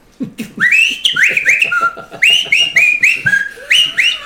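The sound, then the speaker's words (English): A person whistles a lively tune while moving through a club, a run of bright, sliding notes repeated in quick phrases, loud with no talking. “through the club, whistling.”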